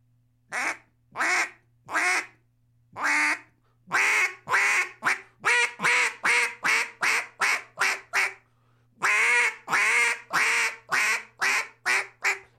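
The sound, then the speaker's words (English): A duck call blown in a long run of mallard quacks, starting with a few spaced notes, then a fast, steady cadence of loud, raspy quacks that pauses briefly and resumes. “Gun Dog Trainer of Bay Country Retrievers & Champion Duck C”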